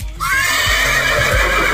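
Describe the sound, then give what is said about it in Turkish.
A horse neighs loudly, one long, shrill whinny that starts suddenly and holds steady for a couple of seconds, with a low rumbling underneath and no talking. “lütfen bu atı kişisel almayın.”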